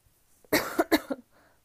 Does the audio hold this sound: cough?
yes